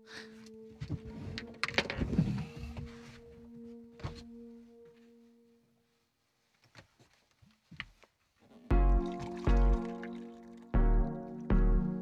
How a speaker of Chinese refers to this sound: 哎，等等等等，我我我倒点水啊，倒点水。